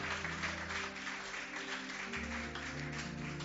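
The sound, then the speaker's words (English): A crowd claps steadily and continuously, clapping unto the Lord, a dense patter of many hands, with sustained low keyboard or organ tones humming underneath and no one speaking. “You can clap unto the Lord, it doesn't spoil anything.”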